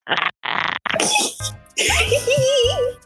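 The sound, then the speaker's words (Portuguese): A person imitates a platypus chirr, the sound of Perry the platypus: a few short throaty bursts, then a sustained guttural rattle with a wavering, warbling tone, loud and unaccompanied by speech. “Fa faz o um barulho de ornitorrinco, faz o um barulho de Perry.”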